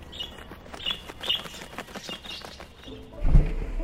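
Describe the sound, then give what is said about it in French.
Small sparrows chirp in short, scattered bursts, fairly faint, over a soft outdoor hum, with a low dull thump near the end. “Parfois je suis le premier rang lorsque les moineaux se posent sur moi.”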